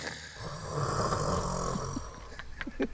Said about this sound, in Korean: 코골이 토너먼트야. 우리들은 그 재밌는 현장을 놓칠 수가 없어서 그 방을 몇 번씩 오가며 구경하기 바빴습니다.